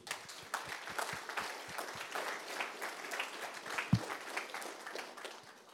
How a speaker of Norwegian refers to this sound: Ja. Takk skal dere ha. Vi klapper og gir ære til Gud.